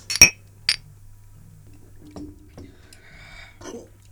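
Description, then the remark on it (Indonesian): Drinking glasses clink together as a group of men toasts, one bright sharp clink followed by a softer second one, then quiet handling and faint liquid or glass sounds. “Udah minum aja dulu. Yo, cheers boys. Cheers.”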